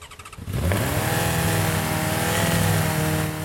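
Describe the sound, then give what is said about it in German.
Driver Florian Kronberger starts the Oscar Racing Team's self-built 80 PS C116 race car at the Wachauring test track in Melk; the engine abruptly catches after a brief quiet moment and settles into a loud, steady roar with strong low harmonics, revving slightly as it runs. No one speaks. “Fahrer Florian Kronberger startet den Wagen”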